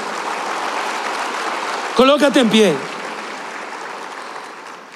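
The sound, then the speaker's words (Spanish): Steady applause from a church audience, given to God as people rise to their feet. A dense, even wash of clapping fills the whole clip, with a man's voice briefly calling out over it midway through. “Dele ese aplauso, Señor, y colócate en pie.”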